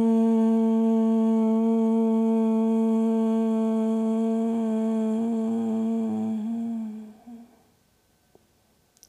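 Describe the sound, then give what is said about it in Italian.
A single long closed-mouth hum of "om", vibrated on the out-breath during a meditation with the tongue tip resting on the high, soft part of the palate, low and steady, held for about seven seconds before fading out into near silence with a faint breath at the end. “E ora, mentre inspirerai, porta e poggia la punta della tua lingua nella parte più alta e morbida del tuo palato, mantenendo la lingua in questo punto, nella fase espiratoria cerca di vibrare un om, mantenendo la bocca chiusa.”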